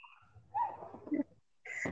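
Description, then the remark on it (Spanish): Dogs barking in a few short, sharp bursts, with a brief pause between them, moderately quiet, with no talking, after a neighbour has arrived. “Ah, de plano ya andan medio bravos esos perros, ¿no?”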